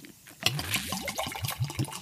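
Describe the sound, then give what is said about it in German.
Golden, clear beer with a fine head of foam glugs steadily out of a bottle into a glass, a rapid run of gurgling pulses that starts after a brief quiet moment and continues to the end. “Gieß dich hier mal ein. Ah, oh, ich sie. Ja, es ist ein schöner Schaum und es ist schöne goldene, durchsichtige Farbe.”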